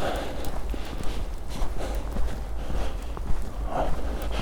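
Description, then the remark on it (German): Steady footsteps crunch through snow at an even walking pace, each step a soft, gritty compression sound over a continuous low rumble, without any talking. “es ist auch echt toll, so durch den Schnee zu laufen.”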